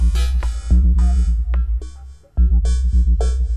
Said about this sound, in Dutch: Ze hebben die structuur van die eiwitten hebben ze vertaald in noten en een aantal muzikale parameters.